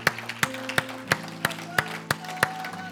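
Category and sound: crowd, audience hand clapping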